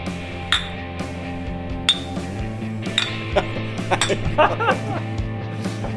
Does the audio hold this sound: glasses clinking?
yes